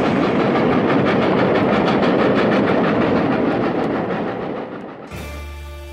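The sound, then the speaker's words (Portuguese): A train rolls along the rails with a loud, dense rumble and steady rhythmic clatter of wheels, easing slightly before cutting abruptly to a steady low hum near the end. “Bem-vindos a esta estação. Posicionem-se em seus lugares e preparem-se para uma grande viagem através do blues e do soul.”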